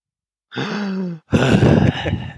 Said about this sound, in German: Oder rein, rein atmen ins Mikro. Du bist ein bisschen weiter weg. Es ist jetzt weiter weg. Okay. Und jetzt atmen mal.